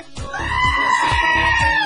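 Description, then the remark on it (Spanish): A voice imitates the roar of the black jaguar of Palenque, Chiapas, with one loud, strained, high-pitched cry held for about two seconds. It sounds more like a bleating scream than a deep growl, with steady low thumps underneath. “¿Cómo ruge el jaguar negro?”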